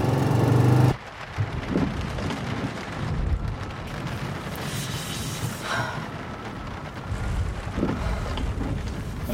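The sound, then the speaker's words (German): A raging storm roars steadily around a car, with heavy rain and gusting wind filling the air and low rumbles of thunder beneath, loud for the whole stretch after an abrupt drop at the start; it is freezing cold, with frost forming on the car's windows. “bin jetzt mitten im Sturm. Mittendrin.”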